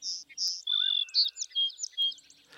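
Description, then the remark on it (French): A young bird's hesitant, rudimentary song, a pale reflection of adult song: thin, high chirps and wavering whistles in an uneven, halting sequence, moderately loud, with no voices. “Puis ils élaborent des vocalisations qui correspondent d'abord à un chant hésitant et rudimentaire, un pâle reflet du chant des adultes.”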